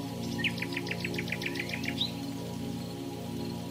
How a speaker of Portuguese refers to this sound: Para começar, nós estamos em uma casa na montanha. Está chovendo lá fora. Os pássaros estão cantando.